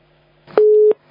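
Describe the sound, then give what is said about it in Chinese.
A telephone busy tone after a dropped call: one steady, mid-pitched beep lasting about a third of a second, loud against a faint low hum, with no voices. “哎呀，今天我们的电话怎么搞的？”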